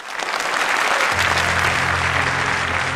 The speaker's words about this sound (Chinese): 掌声有请。